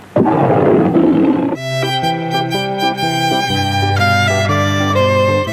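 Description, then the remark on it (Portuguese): A loud, rough lion roar bursts out for about a second and a half, then gives way to sustained, bright musical tones that carry on to the end. “Conforme você fizer sua declaração, o imposto de renda é um gatinho. Conforme ele vira um leão.”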